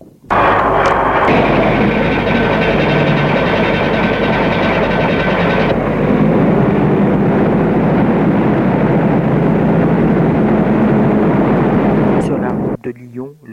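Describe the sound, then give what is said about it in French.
A truck engine rumbles loudly and steadily as the truck drives to Lyon, a thick, continuous roar with deep low-end drone that holds for about twelve seconds before cutting off abruptly. “Ils se sont rendus et menés en camion à Lyon.”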